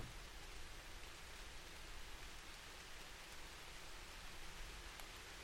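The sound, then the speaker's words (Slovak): Steady rain falls in a dense, unbroken hiss, with a soft patter of drops on a surface throughout. The sound stays even and moderately quiet, with no voices. “V pozadí môžeš počúvať zvuky dažďa, ktoré pomôžu tvoje mysli dosiahnuť určité špecifické mozgové vlny, ktorých frekvencie sa nachádzajú napríklad u skúsených meditátorov.”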